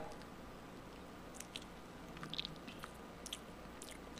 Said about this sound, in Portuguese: Ah, é que tu comeu um salgadinho agora.